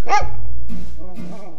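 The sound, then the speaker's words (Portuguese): A single loud, sharp dog bark rings out at the start, followed by a person beginning to speak. “Um cachorro muito elegante, de pelos cor-de-mel e que vivia sonhando em comer um pedaço de carne.”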